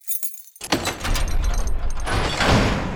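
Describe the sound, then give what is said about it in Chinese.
A prison cell door is opened by a hamster to let a hen out: a sudden metallic clank, then a sustained rattling, grinding scrape that grows louder toward the end. No one speaks. “仓鼠打开了牢房，鸡小美从里面走了出来。”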